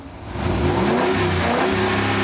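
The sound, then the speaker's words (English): A Jeep Grand Wagoneer luxury SUV engine revs up and holds a steady, throaty roar, its pitch climbing slightly over a couple of seconds, loud with no voices. “Her new Jeep Grand Wagoneer is at the top of the luxury SUV food chain.”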